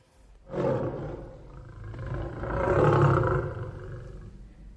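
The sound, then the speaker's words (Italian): A lion's deep, rumbling roar kicks in abruptly and holds for several seconds, swelling louder toward the middle before easing off. Loud, with no voices. “È verissimo, rispose l'orco bruscamente, e per darvene una prova mi vedrete diventare leone.”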